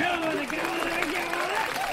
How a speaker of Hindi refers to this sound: धन्यवाद धन्यवाद तालियां भाई तालियां